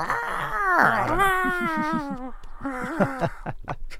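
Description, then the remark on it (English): A person imitates the cry of Gamera, the giant turtle monster, with a loud, warbling howl that swoops up and down in pitch, stretched into a long wail before breaking into shorter groaning bursts. “I'll so... just try to do jam- Gamera sound.”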